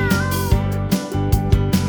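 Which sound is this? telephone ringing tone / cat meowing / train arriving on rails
cat meowing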